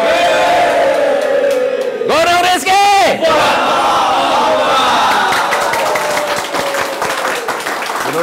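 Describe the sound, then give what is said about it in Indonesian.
A group of visitors from Gunung Rizki, from Semarang, shouts together at the Top Coach Indonesia office in Jakarta in a loud, ragged burst of cheering, voices rising and falling in pitch, followed by continued crowd noise and clapping-like clatter behind a speaking voice. “Teriak semuanya.”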